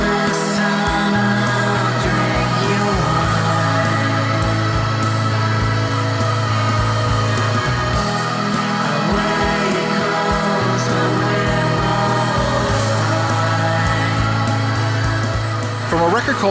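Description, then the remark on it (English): A hazy 1994 shoegaze track: a loud, dense wall of washed-out guitars blended with soft keyboard tones, over a slow bass line that steps between low notes every few seconds. “This is probably their best known song, a 1994 track”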